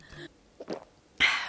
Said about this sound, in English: It's the sound of my gulp.